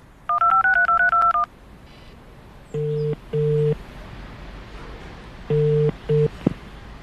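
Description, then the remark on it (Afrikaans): A phone number is punched in to call Fossie, a fast run of about eight beeping keypad tones, followed by several steady, lower-pitched line tones in uneven pulses. No one speaks. “Ek moet vir Fossie bel.”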